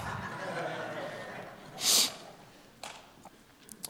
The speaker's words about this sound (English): I'm sniffling, but that ain't because of the that ain't because of the Rona. I was crying.